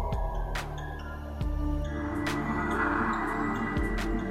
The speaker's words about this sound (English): Sounds like someone breathing. Ominous.